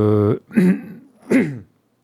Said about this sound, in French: Pardon, je tousse à, à, côté du micro. C'est un petit peu mieux,